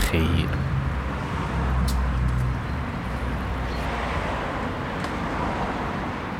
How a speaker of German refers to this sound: Ich habe mein Mikrofon parat gehabt, bin den Kapellenweg führen gelaufen und an der Tramstraße vorne tönt es genau gleich wie immer. Verkehr.